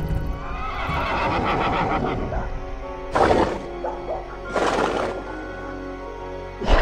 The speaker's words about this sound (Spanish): Lo que antes era un cerdo enorme, ahora era un enorme caballo, el cual relinchaba de forma horrible y pateaba el piso con mucha furia.